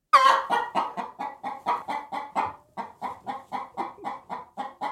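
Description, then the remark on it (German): Chickens cluck in a steady, rapid series of short, loud calls, about four per second, with no voices. “Und die Infotiere diese Woche sind die Hühner.”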